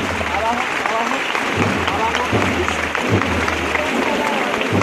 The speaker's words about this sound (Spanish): que hace que, toda la gente rompa a aplaudir. Se queda el paso parado en estos momentos.